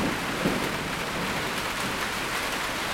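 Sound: rain falling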